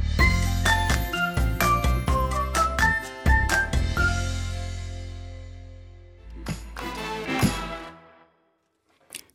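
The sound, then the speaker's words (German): A song plays on the radio, bright bell-like melodic notes over a steady deep bass, loud; the music thins out and fades near the end, with a short final flourish. “Dann spiele ich ein Lied und wir hören uns gleich.”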